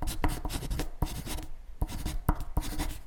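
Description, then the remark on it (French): A manga artist's pencil and mechanical pencil scratch steadily across scrap paper in quick, repeated strokes while making a rough pencil draft, fairly quiet, with brief pauses between bursts of sketching and no voices. “Il utilise son crayon à papier et son critérium pour réaliser un crayonné sur des feuilles de brouillon.”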